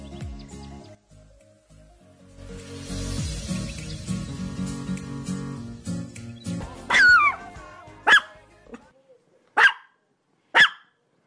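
Dogs barking: after several seconds of low, rumbling background noise, four loud, sharp barks ring out, spaced unevenly about a second apart, with no one talking.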